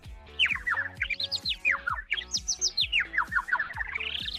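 Bright, rapid bird chirps repeat in quick sweeping trills for a few seconds, loud, with a faint low musical hum underneath and no talking.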